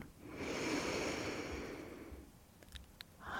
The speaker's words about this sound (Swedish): Så ta ett djupt andetag in och andas in genom näsan.